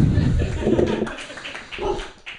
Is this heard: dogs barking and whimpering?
yes